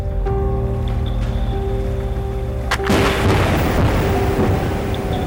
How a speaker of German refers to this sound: Das ist eine Schallkanone, mit bis zu 260 Dezibel ist sie eines der lautesten menschengemachten Geräusche. Unternehmen nutzen sie auf der Suche nach Bodenschätzen.